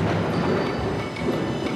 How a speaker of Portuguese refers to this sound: puseram-lhe sons de raios e de trovões.